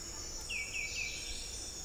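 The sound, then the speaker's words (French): A great tinamou gives three quick, descending whistled notes in a wavering tremolo run, set against a steady, high insect drone in a mature primary lowland tropical rainforest in Panama, shortly before sunrise. “Il n'y a pas encore beaucoup de chants, mais il y a ce chant-là, une espèce de sifflement avec un trémolo très fort qui, euh, qui hante finalement la forêt alors que c'est dans la pénombre encore.”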